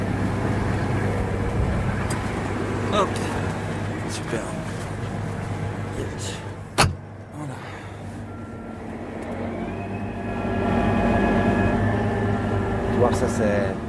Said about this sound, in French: On monte dans le tracteur pour retourner à Prud'homme avec le raid.